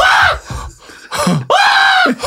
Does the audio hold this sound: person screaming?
yes